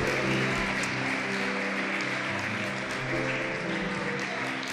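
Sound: audience applause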